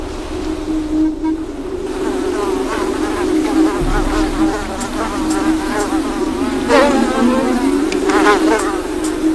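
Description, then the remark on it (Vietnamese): Mosquitoes buzz in a steady drone that never lets up around mudskippers, fish living on land, with gentle water noise and faint chirping underneath. “Có lẽ chúng là loài cá duy nhất trên thế giới bị muỗi làm phiền.”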